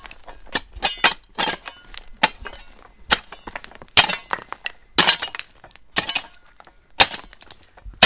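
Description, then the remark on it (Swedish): A hoe chops repeatedly into stony ground in a village, each blow a sharp, gritty clink of metal on rock, landing irregularly about once a second, with no voices. “och i byn finns inga egentliga adresser till husen så vi får lyssna oss fram och vi hör ljud från en hacka någonstans.”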